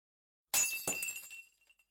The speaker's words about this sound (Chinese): 黄秋手里正拿着一个玻璃杯，准备给自己倒水喝，手一滑，玻璃杯就摔了个稀巴烂。